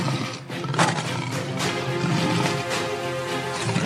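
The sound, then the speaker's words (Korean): A young lion roars loudly, a deep, rumbling growl that carries on without a break for several seconds, with no voices over it. “자, 이제 아프리카를 횡단합니다. 젊은 사자가.”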